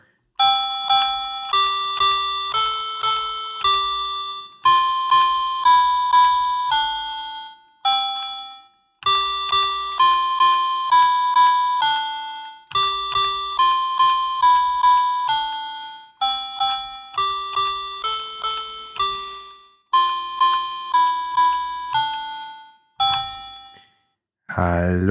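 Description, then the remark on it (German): A small electronic toy piano attached to a little book, played by an adult, gives a bright, beepy melody with steady, slightly plinky notes in a simple rhythm, fairly loud, with brief pauses between phrases. “ein kleines Buch mitgebracht hat mit einem kleinen elektrischen Klavier dran”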